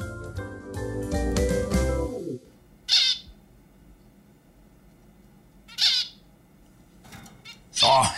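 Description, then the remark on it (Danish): Three harsh, raspy bird squawks from a bird named Pipage ring out a few seconds apart, each short and loud, following a brief stretch of low, tonal music-like sound at the start. “hey, du, Pipage, kan du så lige få næbet op af knallers kaffekop, du?”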